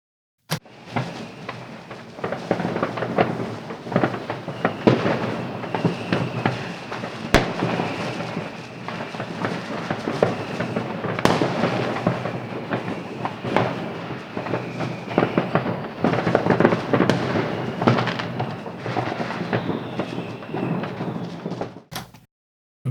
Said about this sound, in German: Wir können ja noch einmal die Fenster noch mal ein bisschen öffnen ja, machen wir doch noch ein bisschen rausschauen, ja. Dem Feuerwerk noch ein bisschen lauschen und dann ganz gemütlich in das neue Jahr 2019 starten. Drüber knallen, ja, genau.